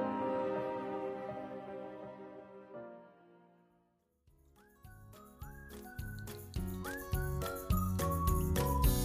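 Bright music begins with ringing, chime-like tones that fade almost to silence, then an upbeat tune with a whistled melody over steady percussion builds in loudness. No one speaks.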